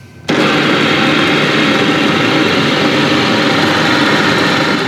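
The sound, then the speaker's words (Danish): A kitchen blender switches on abruptly and runs at a loud, steady whir, blending shrimp paste and fish sauce; a dense motor roar that holds constant for several seconds with no talking. “Så rører den ned i blenderen.”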